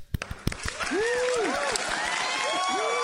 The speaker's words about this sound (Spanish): Voy a poner aplausos ahí para que no sea muy triste que solo nosotros.